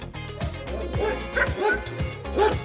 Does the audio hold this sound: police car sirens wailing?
no